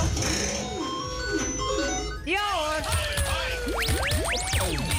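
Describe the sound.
An arcade coin game springs to life after a coin is thrown in, with bright electronic tones: bouncing chirps, then fast sweeping beeps rising and falling in pitch over a steady hum, with people talking briefly.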